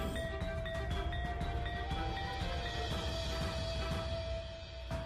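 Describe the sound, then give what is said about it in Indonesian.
A bende gong, the heirloom bende Kiai Simo belonging to Sunan Kudus, rings with a steady, sustained metallic hum that stays loud throughout, over a dense rumbling background dotted with faint clicks. “Oh, suara bende pusaka Kiai Simo milik Kanjeng Sunan Kudus.”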